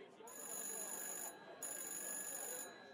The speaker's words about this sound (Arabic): التليفون رن تاني